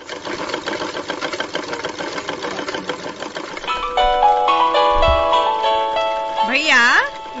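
A sewing machine runs steadily with a fast, even mechanical clatter as someone sews on it. Midway, a phone rings with a bright electronic melody with warbling tones over the machine's continuing rattle.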